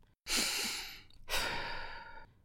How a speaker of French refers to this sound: Je respire un grand coup.